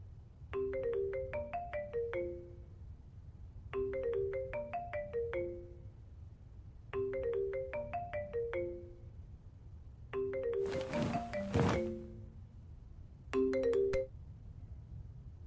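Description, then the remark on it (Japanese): A phone's melodic ringtone repeats in several short bursts of chiming tones, clear, with a brief clatter near the end as the call is picked up. “もしもしやっと電話出てくれた”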